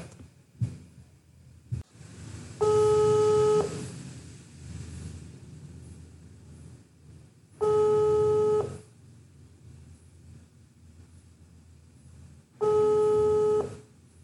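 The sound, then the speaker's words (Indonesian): A telephone ringback tone as a phone call is placed sounds three times, each steady buzzing ring lasting about a second, evenly spaced roughly five seconds apart, with low background hum in between and no talking. “yuk kita hubungin dulu”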